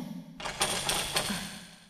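Metallic clicking and scraping, with a few sharper ticks over a steady rasp, as a lock is picked open with picks. No voices.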